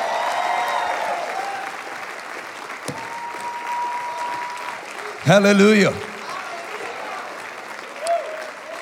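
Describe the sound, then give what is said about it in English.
An audience at a church revival service claps for Jesus after a testimony, a dense, continuous wash of applause lasting throughout, while a voice calls out over it and a louder sung or shouted exclamation rises briefly midway. “Give Jesus a great big hand clap all over this place.”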